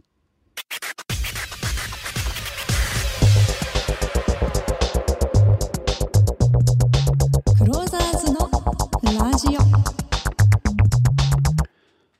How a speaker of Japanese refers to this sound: はいまずはこんな感じで あのスクラッチノイズから始めるちょっとかっこいいヒップホップってほどでもないんですけど かっこいい感じで作ってみましたね